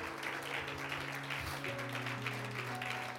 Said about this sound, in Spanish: Denle un aplauso fuerte al Rey de Gloria.